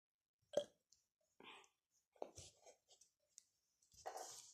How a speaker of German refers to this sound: Warte, es muss raus. Es tut mir leid. So also einfach, das finde ich voll höflich von dir, dass du einfach sagst, wenn du rülpsen musst, tut mir leid, das muss jetzt gerade raus.